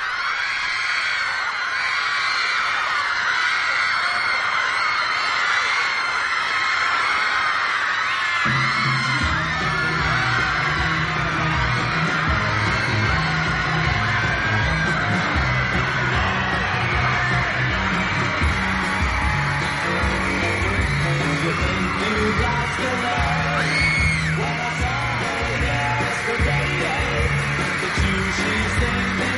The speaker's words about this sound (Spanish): Las admiradoras siguen gritando enloquecidas.